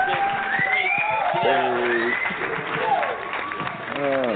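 A show audience applauds the host's guests while cheering, with high rising whoops and shouts over a dense, continuous wash of clapping that stays loud for the full four seconds.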